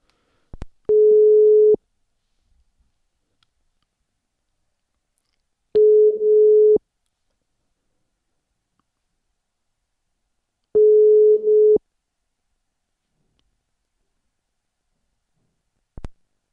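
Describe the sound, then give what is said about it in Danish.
A telephone ringback tone during an outgoing call sounds three times, each steady hum lasting about a second with long silent gaps between, bracketed by faint line clicks at the start and end. “Øh, så prøver vi at ringe til ham og se, om, om han har noget fornuftigt at sige.”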